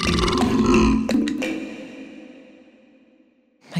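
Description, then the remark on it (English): A long, loud belch rumbles out, deep and throaty, then slowly trails off over a few seconds. No talking, just the burp fading toward quiet. “We're constantly belching out tons of methane gas, which is a significant contributor to climate change.”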